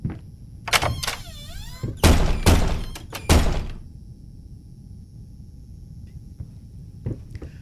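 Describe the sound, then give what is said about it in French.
In a game, four doors, one on each wall of a 2-by-2-metre square room, are opened one by one, each found walled up: a creaking hinge, latch clicks and heavy thunks in quick succession over about four seconds, followed by quiet with a faint background hum. “Une porte sur chaque mur. Vous les ouvrez une à une, elles sont toutes murées.”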